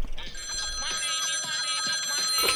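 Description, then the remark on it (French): A telephone bell rings continuously, a bright, high-pitched metallic trill held steady for the whole stretch, with faint voice-like murmurs underneath. “Allô, poulailler central du rap, jeu français, j'écoute.”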